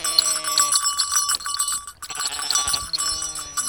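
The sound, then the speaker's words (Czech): A small flock of Cameroon sheep, a primitive breed, bleating at a pasture in the Bohemian Karst protected landscape area, Czech Republic; several overlapping wavering calls in quick succession, with faint bell-like tinkling in the background. “Tohle to jsou kamerunské ovečky.”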